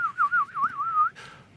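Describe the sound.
A person whistles a soft, wavering bird-like comforting call imitating a bird, a warbling tone rising and falling in quick undulations for about a second, then a short breathy burst at the end. No talking.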